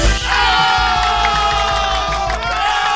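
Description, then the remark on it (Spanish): A dense crowd cheers and whoops loudly and steadily, with layered high voices and rhythmic low thumps underneath, a sustained roar of applause and cheering with no clear speech. “Muy bien, aplausos.”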